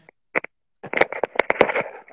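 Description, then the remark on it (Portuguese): Tapping interference from a propped-up phone: two quick knocks, then a dense, irregular run of close, muffled taps and bumps with a crackly, rattling edge, moderately loud. “está dando alguma interferência, não sei onde você colocou o seu celular apoiado, ele está dando umas batidinhas, assim, acho que alguma interferência ali de algum, de algum objeto.”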